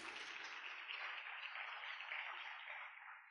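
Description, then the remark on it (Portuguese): An audience applauds the Lord during a sermon, steadily for a few seconds, a dense, even wash of many hands clapping at once, with no one speaking over it. “Você pode aplaudir o Senhor, querido.”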